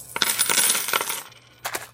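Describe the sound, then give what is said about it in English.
Coins clatter into a bucket in a dense, jangling cascade of metallic clinks, then after a short lull a final small burst of coins rattles in. No voices, just a faint low hum beneath. “I think hard and remember a few of the TikTok dances that my daughter taught me and after 20 minutes or so of well angled dabs and …, I have a bucket full of coins.”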